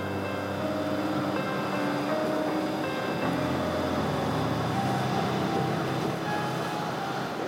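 Steady interior rumble of a moving metro train, running only every 15 minutes, with a constant low drone and faint tonal whines from the motors holding an even level throughout, no voices heard.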